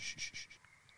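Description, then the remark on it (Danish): Birdsong heard faintly through a baby monitor: a quick run of four or five thin, bright chirps that fade out, with a tinny, band-limited quality over a soft hiss. “Det er fuglekvider, der går i babyalarmen.”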